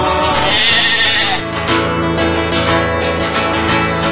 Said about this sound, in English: Sheep, sheep, I love sheep. I love when they're strutting their mutton. Ah, the bleat and the meat of sheep to practice our manlyhood.